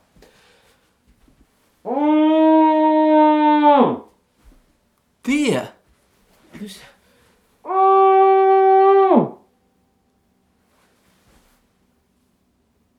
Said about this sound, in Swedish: Ja, men när jag skrek i kudden då kunde jag skrika ganska högt utan att det kändes konstigt. Det var som att jag skrek ut det arga.